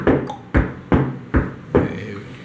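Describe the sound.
A voice imitates a woman's large high heels clicking on a polished cement hallway floor: five sharp, evenly spaced clacks in a steady walking rhythm, fairly loud, with no other talking.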